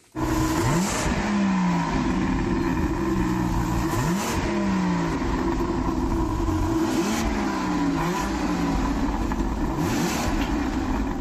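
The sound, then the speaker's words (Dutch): A BMW V12 engine revs repeatedly in loud, rising sweeps, about four bursts of acceleration roaring up and dropping back, with no one talking over it. “Sluiten wij af met die V12?”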